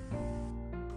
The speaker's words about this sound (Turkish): bölüme başlamadan önce böyle arkadan çok hafif bir uğultu gibi bir ses geliyor olabilir. Onun için kusura bakmayın. Ee, hiçbir yerden ses gelmesin diye kapımı, penceremi her yeri kapattığım için vantilatör çalıştırmak durumunda kaldım.